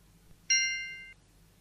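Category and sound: signal or alarm, bell ding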